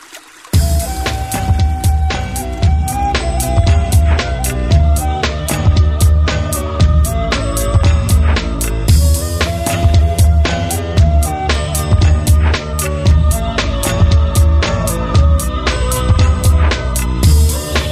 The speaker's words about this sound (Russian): А этот трек вряд ли можно зашазамить. Это эксклюзив на волнах нефтерадио